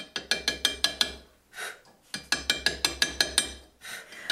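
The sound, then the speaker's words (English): Crisp chisel taps as letters are cut into a beach stone: two quick, steady runs of about seven sharp strikes each, separated by a brief soft scraping hiss, with no voices. “I enjoy working with beach stones because they've got a whole kind of story already. Mostly cutting letters, but some making three dimensional forms, bubbles, and such like.”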